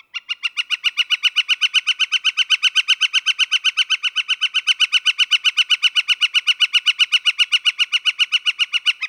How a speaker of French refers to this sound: Des pics de cette forme, généralement des hybrides, peuvent migrer à la partie ouest de notre territoire. Et comme à l'habitude, voici la voix de l'oiseau à l'honneur aujourd'hui.